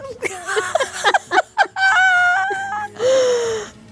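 A woman crying, with a run of short, broken sobbing bursts that give way to longer, drawn-out wailing cries. No clear words are spoken.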